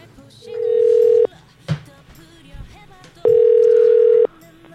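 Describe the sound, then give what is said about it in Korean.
A telephone ringback tone as a phone call is placed to a baseball player: two steady, loud electronic beeps, each about a second long, separated by a pause, with faint background noise and a soft thump in between. “전화 연결해 보겠습니다.”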